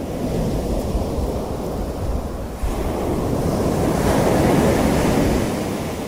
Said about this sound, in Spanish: ¿Vieron cuando uno va, va escuchando, ¿no? Las, las olas que van y que vienen. Escuchen, escuchen, miren.